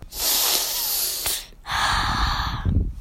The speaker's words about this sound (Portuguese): Estou respirando, pai. Respirar é algo que a gente faz todos os dias. Durante o dia todo, estejamos acordados ou dormindo.